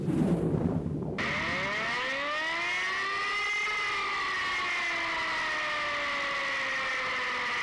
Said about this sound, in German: So, werte Feuerwehrkollegen, dieses Geräusch kennen Sie alle. Das ist der Sound unserer allseits beliebten Einheitssirene Typ E57.